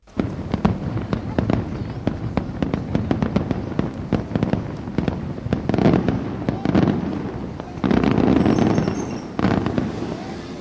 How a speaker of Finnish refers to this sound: Beirutin kattojen yllä räiskyvät ilotulitteet. Joku juhlii pääsyä parlamenttiin.